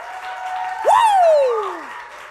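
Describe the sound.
A church audience at Tønsberg pinsekirke Betania, standing and applauding for Jesus in a steady, dense wash of clapping, while a loud voice whoops, rising briefly then sliding down in pitch over about a second.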